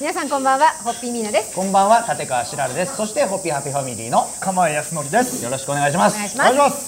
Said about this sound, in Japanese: あの今週は岡山県の犬島に完成した犬島ホッピーバーからお送りしております、はい、えー、ですからこれ時期がもう7月末ということで、ちょっとセミの声とかが聞いてる方も聞こえると思いますが、梅雨が明けて、夏がやってきた。